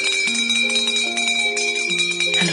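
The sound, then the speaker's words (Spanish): A bell in an entrance hall is rung and rings out repeatedly, each strike adding bright, sustained tones that overlap and hum together. It is loud, with no talking. “Pediremos a los pajes que nos ayuden, dijo Melchor, mientras se acercaba a una campana que había en el recibidor y la hacía sonar”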